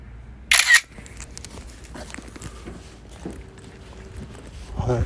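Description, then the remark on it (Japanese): A single loud camera shutter snap, a sharp, bright mechanical burst lasting under a second, as a photo is taken in Mitaka, Japan, followed by low, quiet background noise with a few faint scuffs and taps. “今三鷹で発見しました激写はい”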